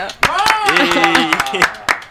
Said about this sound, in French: Merci d'applaudir.